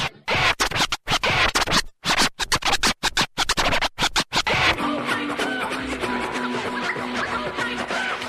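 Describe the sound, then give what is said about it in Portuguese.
Loud, choppy turntable record scratching in rapid back-and-forth bursts with short gaps for about five seconds, then giving way to steady music underneath. “Vou tocar música, gigante. Vamos lá? Movimento da vitrola, vai.”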